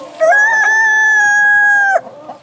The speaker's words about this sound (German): kräh nicht so laut. Ich tu deinen Kinderchen nichts.